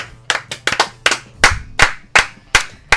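Sparse applause: about ten sharp, close hand claps in an uneven rhythm, ringing slightly. No one speaks.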